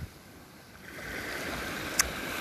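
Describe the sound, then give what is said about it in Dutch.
Gentle water laps steadily at the shore, a soft continuous wash that swells slightly after the first second, with one brief sharp tick near the end and no voices. “En gewoon even zijn en zitten met mezelf aan het water. Op de plek van mijn dromen.”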